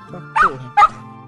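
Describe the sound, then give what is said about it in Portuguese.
A dog barks twice in quick succession, two short, sharp woofs, with a low steady hum running underneath. “Vocês conseguem escutar o barulho dele correndo, você vê que ele tá latindo e ele tá, tá indo, tá ligado?”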